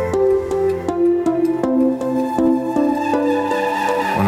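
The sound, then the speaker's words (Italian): An instrumental pop song intro plays, with sustained chords over a steady pulsing beat and a moving bass line, fairly loud, with no singing or speech. “mi vengono in mente delle strofe di una canzone.”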